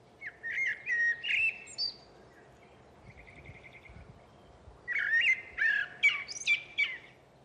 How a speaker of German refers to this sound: Zehn Minuten später ist schon die nächste Melodie zu hören. Man kann sie gut von der ersten unterscheiden. Es ist eine Amsel.